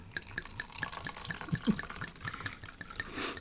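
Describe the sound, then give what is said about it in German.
Dornfelder wine is poured into a hotel-room toothbrush cup in a steady, splashy stream with quick gurgling glugs and drips running throughout, moderately loud with no one talking. “Davon werde ich mir, pass auf, den, den mache ich mir jetzt einfach mal auf. Und äh, werde mir mal einen Schluck gönnen.”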